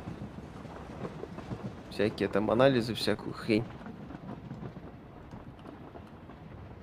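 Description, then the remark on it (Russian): A train rumbles past, a steady low clatter running through the whole clip beneath a brief stretch of conversation. “О, поезд.”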